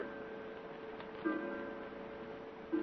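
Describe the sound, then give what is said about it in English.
A clock striking twelve at midnight, with two low strokes about a second and a half apart over a soft, lingering ringing hum, fairly quiet and with no voices. “I'm afraid you're mistaken, Mrs. Fielding. Twelve o'clock.”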